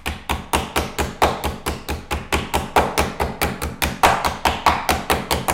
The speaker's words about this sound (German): Also wenn du es an einer Stelle ein bisschen dicker hast als an der anderen, dann klopfst du da noch ein bisschen nach, ja. dann gart das Ganze nämlich nachher auch gleichmäßig.